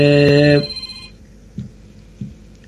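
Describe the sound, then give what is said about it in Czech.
A telephone rings loudly with a bright, steady electronic tone for about half a second, then cuts off, leaving faint room noise and a couple of soft low thumps. “Ty, no, máme tady už, další už, telefon.”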